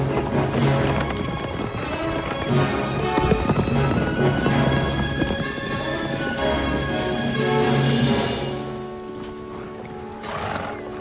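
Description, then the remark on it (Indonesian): A horse ridden by Abul As bin Rabi toward Medina gallops with steady, rapid hoofbeats over a dense, continuous background, and a whinny seems to rise near the end. No one speaks. “mereka masih tak percaya ketika pemuda itu memacu kudanya menuju Madinah.”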